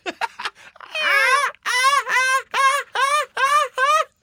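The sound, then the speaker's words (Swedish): A person from Gothenburg imitates a gull with a drawn-out, wavering squawk followed by five or six short, shrill, nasal cries in a steady rhythm, loud. “Men om du ska imitera en mås, hur låter det förresten?”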